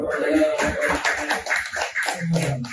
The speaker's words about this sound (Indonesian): Nah, jadi semua sama ya? Semua sama. Tepuk sama. Semua sama.